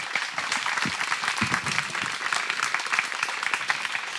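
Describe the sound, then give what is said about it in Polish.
Sustained applause from an audience for the last guest, Edward Pasewicz, at the end of a four-day event, dense clapping filling the whole stretch at a steady, fairly loud level with no pauses. “E, bardzo dziękuję za te cztery dni, które spędziliśmy razem i poproszę o wielkie brawa dla ostatniego gościa, Edwarda Pasewicza.”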